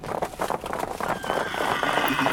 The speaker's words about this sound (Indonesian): Di saat itu, ibu lagi-lagi mendengar suara derap kaki kuda berlari dari kejauhan. Di ujung jalan setapak yang gelap.